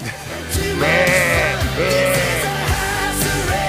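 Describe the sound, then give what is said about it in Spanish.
A sheep bleats loudly twice in quick succession, each call a wavering, nasal cry, prominent over a steady background hum. “eres la oveja negra.”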